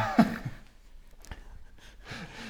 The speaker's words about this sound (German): ja, Gesundheit da drüben. Gesundheit.